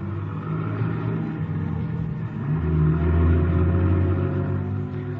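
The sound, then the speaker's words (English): A car engine starts up in a garage and rumbles at idle, then revs up louder around the midpoint and keeps droning steadily as the car pulls away, fairly loud with no talking. “Then somebody enters the garage, eases into the car, and we start up.”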